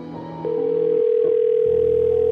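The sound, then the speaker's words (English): A steady, unbroken telephone dial tone hums loudly as a call to local residents is placed, starting just after a brief musical bed that fades out beneath it, then continuing alone until the end. “So I started calling local Austonians.”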